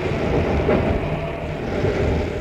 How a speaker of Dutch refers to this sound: De poten staan op de grond. Nog een paar seconden en de motor slaat af.